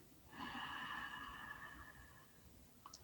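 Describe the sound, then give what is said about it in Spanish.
A long, deep inhale drawn in steadily through the nose for about two seconds during a guided breathing exercise, clear, with a faint click at the end and no talking. “Inhalamos la serenidad”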